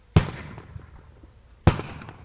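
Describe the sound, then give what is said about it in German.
Two sharp, loud bangs about a second and a half apart, each with a booming low thump and a long reverberant decay rolling across open space, from a bird-scaring cannon used to drive hungry birds out of the vineyards at the Austrian-Hungarian border. “Das Geräusch soll die hungrigen Vögel aus den Weinbergen vertreiben.”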